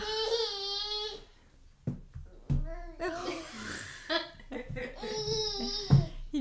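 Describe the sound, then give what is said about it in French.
A baby boy fusses and babbles in his bouncer seat, letting out several high, drawn-out squealing cries and shorter babbles in uneven bursts, some sounding halfway between whining and laughing, showing he is unhappy and no longer wants to stay in the bouncer. “Tu rigoles ou tu pleures Faut savoir. Il veut juste montrer qu'il est pas content, il veut plus rester dans son transat.”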